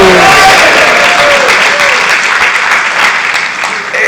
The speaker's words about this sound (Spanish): Por eso démosle esa ofrenda de palmas a su gloria.